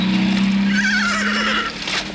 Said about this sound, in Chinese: 一声马嘶，莫里斯连人带车摔倒在地。